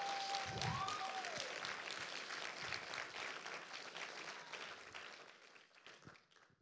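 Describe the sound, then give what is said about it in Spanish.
An audience applauding the Lord for ten seconds, a dense, steady wash of many hands clapping that stays strong for several seconds and then gradually thins and fades out, with a brief tonal whistle near the start. “Qué bueno, tiene 10 segundos para aplaudirle al Señor.”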